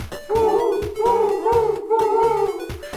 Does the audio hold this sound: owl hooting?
yes